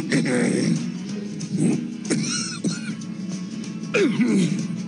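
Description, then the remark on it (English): A few deliberate, raspy coughs from one person, spaced a couple of seconds apart, each with a throaty, voiced tail like clearing the throat. “I'm working on this trademark cough.”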